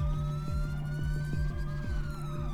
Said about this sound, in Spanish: Escucho sirenas de... ¿Policía? Creo que sí. Bendito Dios, justo a tiempo.